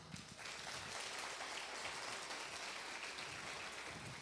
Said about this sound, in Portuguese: Uma salva de palmas. Salva de palmas.